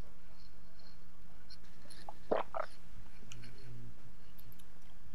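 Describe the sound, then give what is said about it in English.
A couple of quick, soft gulping swallows of drinking water, clustered together midway through, with only a low steady hum before and after. “Listen to me gulp, everybody quiet quietly listen to me gulp.”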